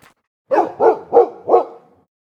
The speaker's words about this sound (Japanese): めったに泣くことのない愛犬が突如立ち止まり吠え出したどうしたペロ犬が吠える先には雑木林